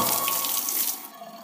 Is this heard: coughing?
no